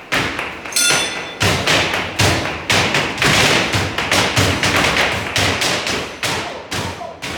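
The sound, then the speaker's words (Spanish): Loud, rhythmic zapateado dance footwork stomps on car license plates in a mechanic's workshop, each strike a sharp clanging thud repeating at a steady dance pace for several seconds, with no talking. “Per això, acaba en un taller mecànic, on balla damunt de matrícules de cotxe.”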